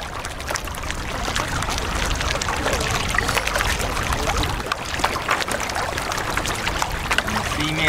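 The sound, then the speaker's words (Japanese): Steady rushing and splashing of water streaming past the hull of a moving Mirage pedal kayak, continuous, with small irregular gurgles and trickles throughout; no one speaks. “走るこの水の音が、えー、スピードが上がると音の変化があるんでそこもまたいい感じですゆっくりの時はもう音が静かですけどだんだん高い音が高くなってきますこうスピード上げると。”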